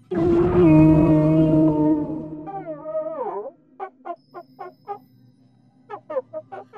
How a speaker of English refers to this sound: The metal monster reared back and let out a strange chord that almost sounded like a whimper.